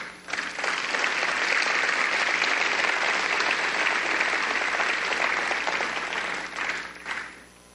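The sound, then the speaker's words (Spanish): An audience claps steadily for several seconds, a dense, sustained wash of applause that swells in quickly, holds at an even level, and tapers off near the end. “¿Por qué no le dan un aplauso?”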